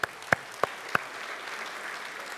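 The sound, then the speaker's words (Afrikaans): A church audience claps for one another: four sharp, evenly spaced claps ring out first, then a steady wash of many hands clapping together continues at moderate volume, with no one speaking. “Hoorie, vir julle nie net weer vir elke ou langs jou lekker hande klap gee nie.”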